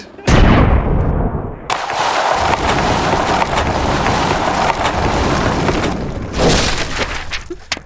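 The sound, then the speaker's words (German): Video game combat: a loud gunshot (the fourth shot), then a heavy explosion as a helicopter is completely blown up, giving way to a steady roaring rumble, and another sharp blast near the end. No voices. “Der vierte Schuss, ich habe es, äh, es ähm, Black Hawk Down. Oh Gott, er ist komplett explodiert.”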